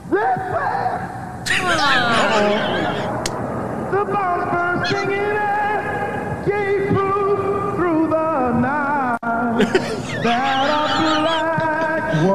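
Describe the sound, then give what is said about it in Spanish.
A singer performing the US national anthem, The Star-Spangled Banner, holds a long, strained melody that climbs to a high note where the voice cracks and breaks into a squawking, honk-like sound, loud throughout. “Ahí me, me gusta cuando estaba todo calladito y cuando se le sale ese gallo la gente, oye, Uh -oh.”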